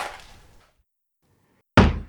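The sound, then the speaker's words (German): A bathroom door slams shut twice, each bang loud and booming with a short reverberant tail, separated by a second of quiet. The second slam is sharper and more forceful. “Zwei, dreimal hintereinander höre ich das laute Rumsen der Badezimmertür”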